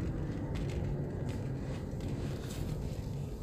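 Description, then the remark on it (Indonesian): A steady, heavy low rumble of a car driving slowly off-road over a bad, rough road, with occasional faint knocks and rattles from the cabin and no one speaking. “kita lagi off road nih ceritanya ini karena emang jalanannya jelek sebentar ya sebentar sebentar sebentar sambil nyetir ya oke karena ada anak bayi dua dalam mobil jadi harus pelan-pelan”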